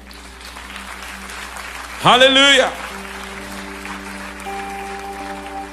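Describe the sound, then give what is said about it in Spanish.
A crowd claps steadily, with a loud voice briefly shouting over the applause midway while a low sustained keyboard tone hums underneath; the applause is given to God during a Christian sermon. “De un aplauso a Dios por esta vida.”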